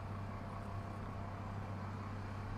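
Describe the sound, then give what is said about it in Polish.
A car engine rumbles steadily with a deep, continuous hum, constant throughout, as the car slowly moves off; no voices are heard. “Samochód powoli rusza”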